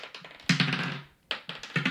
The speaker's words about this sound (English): So you're uh-huh. gonna hit it, and whoever can hit a nat twenty on their dice first. Oh my god, wins.